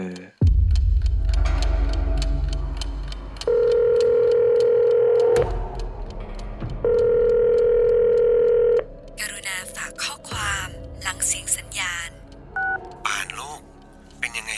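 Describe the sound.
A father's call to his daughter's phone rings unanswered in two long, steady electronic ring bursts separated by a pause, fairly loud, followed by a short automated Thai voicemail message asking the caller to leave a message after the tone, with a beep.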